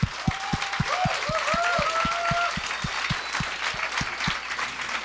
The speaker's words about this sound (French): Fait que, euh, mesdames et messieurs, une bonne main d'applaudissements.